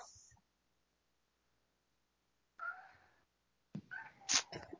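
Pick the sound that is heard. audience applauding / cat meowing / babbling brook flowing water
cat meowing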